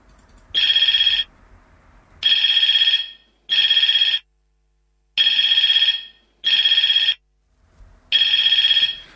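A loud electronic telephone ringtone sounds alone in six evenly spaced bursts, each a bright buzzy trill lasting under a second, separated by short silences.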